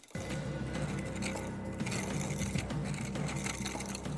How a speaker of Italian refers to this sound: La punta di bronzo del trapano ruota sulla roccia e, un po' per volta, scava un foro circolare.